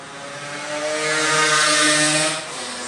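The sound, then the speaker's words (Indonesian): Motorbikes roar past noisily, a buzzing, droning engine sound with steady harmonic tones that swells louder through the middle and then eases off slightly, with no one talking. “gandeng tolong gandeng motor-motor aja ya”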